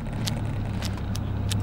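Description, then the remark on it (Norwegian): A steady low engine rumble of a car driving very slowly, with a few brief high hisses or clicks breaking through at intervals; no voices are heard. “Du kjører jævlig sakte pga. et eller annet.”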